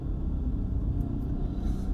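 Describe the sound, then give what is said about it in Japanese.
Steady low-pitched rumble of a car engine and tires on the road, heard from inside the vehicle as it is driven home, continuous and fairly loud with no voices. “かといって今車なんですけどパッと止めれてさっと帰るところっていうのがなかなか見つからないというところですね”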